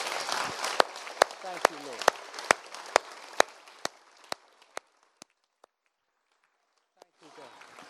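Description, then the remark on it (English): A crowd applauds the Lord at a Christian gathering in a dense, wide wash of clapping, with a few loud, evenly spaced claps standing out in a steady rhythm, tapering off into sparse claps before a brief murmur of voices returns. “Let's applaud the Lord together, shall we?”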